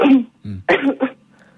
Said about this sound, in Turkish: Beni duyuyorsan öksürür müsün?